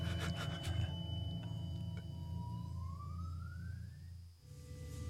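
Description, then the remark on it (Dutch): A wooden door creaks slowly open, its hinge drawing out a long rising squeal over a low steady rumble, ending abruptly after a few seconds. “De deur gaat open hoor je.”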